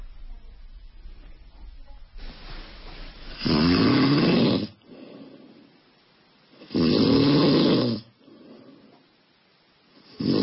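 A man snores loudly and close by, two long rasping breaths about three seconds apart, with quieter breathing sounds between them.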